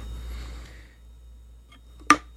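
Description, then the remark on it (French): A single sharp click from the widget ball knocking inside a beer can, sounding after two seconds of near silence with only a faint low rumble. “On peut entendre donc euh, la boule à l'intérieur, la bille à l'intérieur.”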